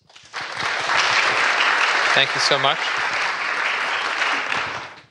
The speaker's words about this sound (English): Well, ask for a round of applause for our panelists.